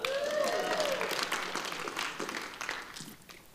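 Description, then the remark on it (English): Audience applause: a dense wash of many hands clapping, with a brief whooping cheer over it at the start, then the clapping gradually thins and fades over a few seconds. “Let's give it up”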